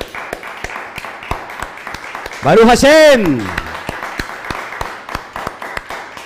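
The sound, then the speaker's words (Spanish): An audience celebrating Shabbat claps for the Kami family in a steady, sharp rhythm throughout, with a single voice calling out loudly over the clapping partway through. “Un fuerte aplauso a toda la familia Kami.”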